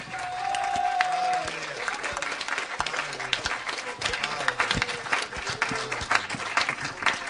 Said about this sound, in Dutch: God een applaus geven? Halleluja.